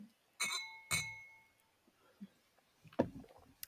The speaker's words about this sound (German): Prost, Mann. Prost. Prost.